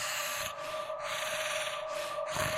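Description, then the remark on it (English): Slow, raspy breathing from a long, lanky, vaguely human creature, two drawn-out rasping breaths rumbling off church walls, set against a steady droning hum with no voices. “Its eyes glow like that of a feral cat, and its raspy breath rumbles off the church walls.”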